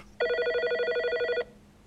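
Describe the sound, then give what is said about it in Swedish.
A telephone rings for an incoming call from a man phoning in. It is a bright, rapidly trilling electronic bell with steady pulsing, loud, lasting just over a second, then it cuts off abruptly into quiet. “nu har vi en, eh, en envis herre som ringer in på tråden här.”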